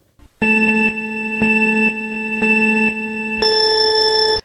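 A loud electronic buzzer tone from a blue timer button sounds with a harmonic, beeping quality, pulsing in four short bursts before jumping to a higher, sustained pitch at the end, with no voices.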